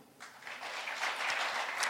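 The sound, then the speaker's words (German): Audience applause voting for the answer option "Wo liegt eigentlich Bulgarien?", a steady wash of many hands clapping that swells slightly after a quieter start and holds at a moderate level throughout, with no voices on top. “Euer Applaus für Wo liegt eigentlich Bulgarien?”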